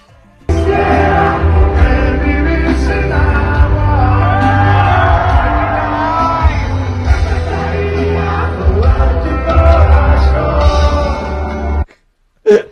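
A large concert crowd in Monterrey, Mexico, roars with sustained booing and scattered shouts at the singer after he joked about the water shortage, loud and continuous for about eleven seconds before cutting off abruptly.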